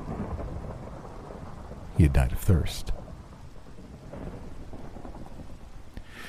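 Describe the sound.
Steady rain hisses beneath a calm spoken voice, with a low rumble of thunder swelling briefly in the middle before fading back into the constant downpour.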